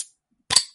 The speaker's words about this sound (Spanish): Acabo de abrirme una cerveza. Sin alcohol, pero una cerveza.